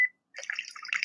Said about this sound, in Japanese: あ、一応な、あ、一応水の音入ってるんですね、まだ。えっと、じゃあ、続きで聞かせながら行きましょうか。